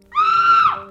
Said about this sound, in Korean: 아이들의 비명 소리가 울려 퍼지기 시작했다.